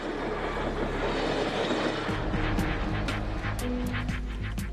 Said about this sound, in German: Der Wasserstoffzug im Test. Ist seine Zeit nun gekommen?